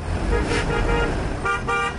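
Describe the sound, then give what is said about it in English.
Busy street traffic in Kabul, choked by checkpoints, rumbles steadily while car horns honk repeatedly, a couple of longer blasts cutting through the low engine drone of congested vehicles. “Checkpoints choke the traffic all over Kabul.”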